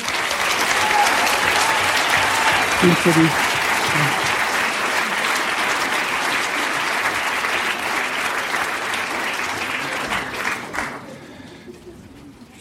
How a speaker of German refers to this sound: Und wir dürfen klatschen.